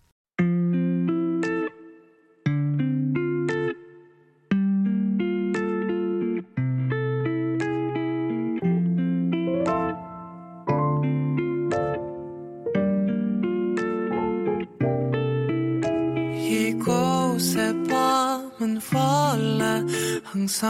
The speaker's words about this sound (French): Et maintenant, une petite pause musicale avant de passer le micro